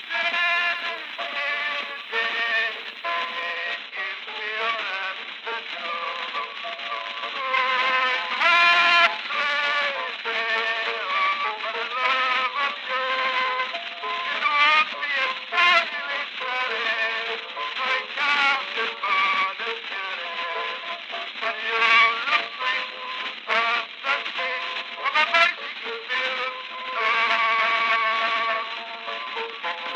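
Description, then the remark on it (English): An 1894 phonograph cylinder recording of a song written in 1892 plays throughout: a thin, tinny, band-limited singing voice with wavering vibrato on sustained notes, steady in loudness, with no talking over it. “The song was originally written in 1892, and it was recorded for Cylinder as early as 1894, in a recording that still survives. Let's listen to a bit of that recording just to get in the mood.”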